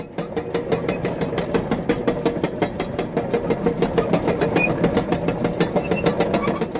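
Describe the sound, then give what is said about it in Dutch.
A rapid, steady series of loose wooden planks clattering and rattling as something rolls across a small, typically Dutch wooden drawbridge, fairly loud, with no voices. “Dat is het geluid van, een, van, van zo'n houten ophaalbruggetje.”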